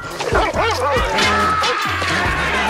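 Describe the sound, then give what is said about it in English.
A dog barks and yips several times in quick succession, loud, with pitch rising and falling on each bark, over a steady background hum and no talking. “Oh old wolf. Doggy dog.”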